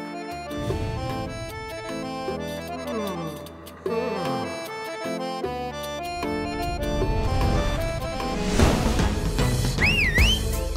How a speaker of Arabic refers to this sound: اظن اني سمعت صوت صفير ايوه انا الشخص اللي صفر